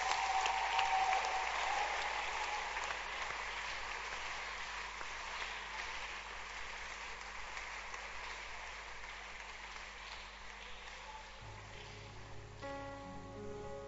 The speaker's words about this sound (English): Clap your hands.